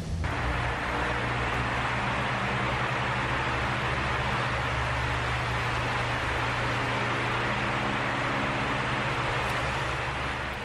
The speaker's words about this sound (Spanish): Y ahora les ponemos el sonido de unos ventiladores para ver si eso las hace sentir nuevamente que estamos en los calores insoportables de junio, ojalá que no, eh